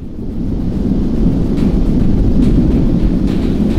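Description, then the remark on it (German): Steady, heavy roar of wind with a deep rumbling storm underneath, loud and continuous throughout, with faint gusty flutters rising briefly in the upper range and no voices. “Der Wind um sie, ja selbst das Gewitter ist nahezu still gegenüber dem Gedöns, aus dem sie kam.”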